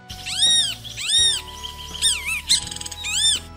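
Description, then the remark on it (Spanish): A brown-backed, yellow-breasted bird with a white patch on its head calls over and over, its loud, rising-and-falling whistled cries coming in quick repeated bursts, with a steady low hum running underneath. “en un rincón junto a la ventana, un pájaro de lomo pardo y pecho amarillo, que tenía una mancha blanca en la cabeza, no cesaba de repetir.”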